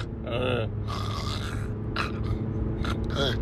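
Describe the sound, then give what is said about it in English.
A voice imitates snoring, with rough, rattling grunts and gasping breaths repeated over a few seconds against a steady low rumble. “you know, like it's like you're fucking snoring, bro, and it sounds weird.”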